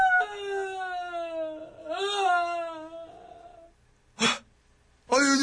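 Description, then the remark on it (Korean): A person somewhere over to one side wails and roars in long, drawn-out moaning cries that bend up and down in pitch, then breaks into two short, sharp howling bursts after a brief pause. “누군지는 모르겠지만은, 저쪽에서 계속 누군가 포효하는 그런 막 뭐 잡음이 들려와가지고, 아, 지금 약간 좀 정리가 필요할 것 같습니다.”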